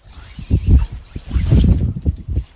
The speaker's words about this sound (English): I feel the slack of the line zip through my hand like a laser beam, and the fly lands perfectly on the edge of the ruffled water.